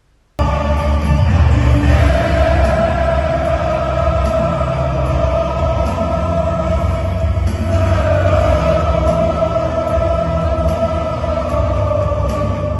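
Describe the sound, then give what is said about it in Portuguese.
A huge football stadium crowd in Germany sings a slow, sustained anthem in unison as it welcomes the players, a dense wall of voices with long held notes that swells steadily and fills the space for the whole stretch. “Ao som de You Never Walk Alone, a torcida recebe os jogadores.”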